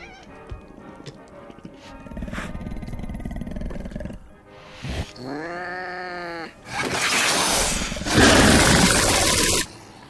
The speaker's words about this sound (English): Uh, so yeah, you're hearing a cat and the creature.